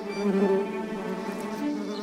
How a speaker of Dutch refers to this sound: Daar zijn ze, de wespen. Je probeert ze met man en macht weg te houden, maar toch blijven ze komen.